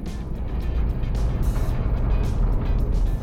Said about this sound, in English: These roars, they almost sound mechanical. Could it be. Maybe another sub? Yeah, that's definitely a giant squid.